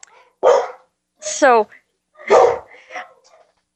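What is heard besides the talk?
dogs barking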